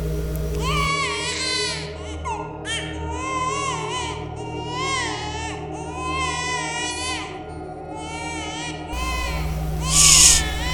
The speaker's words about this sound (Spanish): Cuando estaban a punto de arrancar este, uno de los amigos escucha el llanto de un bebé, así que le dice a los demás, que guarden silencio.